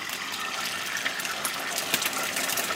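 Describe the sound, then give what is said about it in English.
Free-range eggs sizzle steadily in a frying pan: a continuous bright, hissing crackle with small pops scattered through it, fairly quiet and without any voices. “Watching my free range eggs sizzling away in the fry pan, I'm thinking about what Ruben Dare from Kinross told me about what consumers look for in an egg.”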